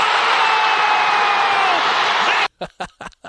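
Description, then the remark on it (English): A huge college basketball arena crowd lets out a loud, sustained guttural roar, not cheering or clapping, for about two and a half seconds at a game-winning shot. It cuts off abruptly, followed by a few short bursts of speech. “guttural reaction from the crowd not not cheering not clapping or anything like that”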